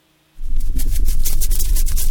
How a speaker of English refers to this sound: Do not adjust your station. That's not static. It's a dozen dogs who got the number two flea control product just one week ago, and they're already scratching away.